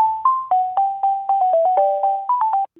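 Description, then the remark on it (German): A short, bright electronic melody of synthesized beeping notes plays alone in a steady rhythm, GEMA-free telephone hold music heard through a phone line at the start of a phone interview in late January 2021. “Das Telefoninterview hat Ende Januar 2021 stattgefunden und beginnt mit einer GEMA-freien Warteschleife.”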